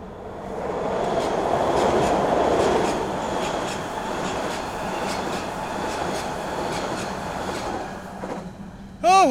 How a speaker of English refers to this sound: Yes, those were indeed some great American facts, and this is indeed a great New York subway train coming at us.